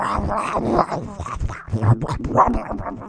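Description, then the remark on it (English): A person's voice imitates a dog noisily chewing Cheetos from a giant bag, with wet, smacking, crunching mouth sounds repeating in an uneven rhythm for a few seconds, fairly loud. “that's not Beethoven making that noise, that's someone else doing dog chewing noises”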